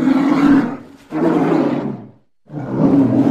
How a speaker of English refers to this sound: You take a couple steps back, and out steps a polar bear, and he just lets out a roar.